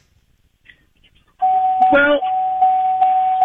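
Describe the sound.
A loud, steady electronic beeping tone in a phone caller's background starts abruptly and continues with slight periodic pulses, heard over a phone line, while someone briefly speaks over it.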